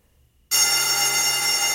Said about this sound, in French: La sonnerie retentit, signalant l'extinction des feux.